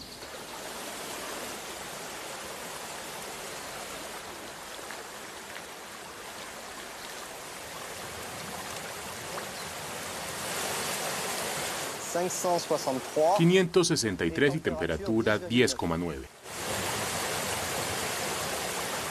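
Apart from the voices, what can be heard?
spring water flowing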